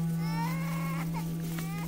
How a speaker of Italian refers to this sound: delle foglie lanceolate e delle infiorescenze rossastre, erette e ricche di piccole spighe accoppiate a due, cominciò a somigliare a un lamento poi al cigolio di cancelli arrugginiti usciti fuori dai cardini e infine a un pianto disperato di bambini.